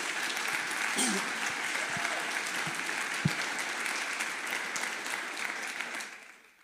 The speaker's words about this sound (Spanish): ¿Por qué no le damos un aplauso a ellos?